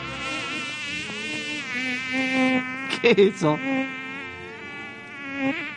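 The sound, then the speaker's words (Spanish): A high, whining mosquito buzz drones steadily throughout, fairly loud, its pitch wavering slightly. Midway a person briefly speaks over it. “Pero no estoy preguntando por el mosquito.”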